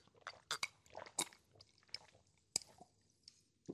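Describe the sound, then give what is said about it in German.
Quick wet gulping and swallowing sounds as sparkling water is drunk from a glass in a drinking race, irregular bursts of liquid and mouth noises over a few seconds, fairly quiet with no talking. “du kannst mit mir kein Sprudelwasserwett trinken machen. Ja, ich kann normales ähm, Wasser trinken”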